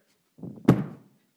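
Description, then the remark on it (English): A single heavy, muffled thud, like a boot stomping on the floor overhead, preceded by a brief low rumble and fading quickly; no one is talking. The stomping comes from boots worn by people living upstairs in a college dorm, around 1 or 2 o'clock in the morning. “We had these guys that lived upstairs. You know what? And I think they had weighted boots.”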